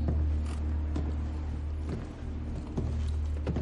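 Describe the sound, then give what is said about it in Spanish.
An elevator door in a loft slides open, opened by a man in a protective suit and gloves, with a steady low mechanical hum punctuated by several soft clicks and creaks spaced about a second apart, moderately loud. “En el loft donde dispararon a Elliot, un hombre con traje protector y guantes abre la puerta del ascensor.”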